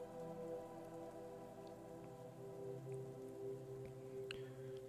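Steady rain falls continuously, a soft even hiss with a few sharper drips and patters standing out now and then; no one speaks.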